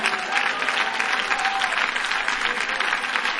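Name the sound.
audience clapping hands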